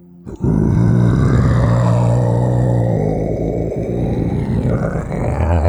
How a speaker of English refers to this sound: and you hear a rumble, like a great big meow coming from inside the clearing that this tree has made.